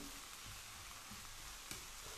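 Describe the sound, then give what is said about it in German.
A steady sizzle of leek pieces and mushrooms being briefly fried in a pan, a dense crackling hiss with a brief louder pop near the end and no one speaking. “dann kommen die Lauchstückchen noch drüber, die wir natürlich auch dazu nehmen können. So. Und da ist auch alles kurz mit anbraten.”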